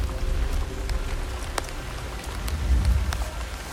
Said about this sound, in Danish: Hvad sker der for det vejr her, mand? Det er helt vildt. Det var bare nu står vi her, og det øser ned, og det begynder faktisk også at blæse op.